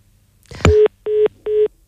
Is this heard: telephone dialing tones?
yes